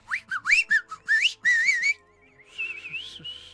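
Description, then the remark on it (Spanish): A person whistles a quick run of sharp, swooping notes, then a longer wavering whistle that trails off into a softer trill. Loud, with no talking. “Entonces, cuando alguien entraba a su territorio, chiflaban y tiraban piedras a las personas que intentaran entrar.”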